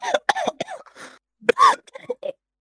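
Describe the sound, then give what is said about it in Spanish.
A harsh fit of coughing: several sharp bursts in quick succession, then a longer rasping cough and a few weaker hacks trailing off. No talking. “Como tose el perro, boludo?”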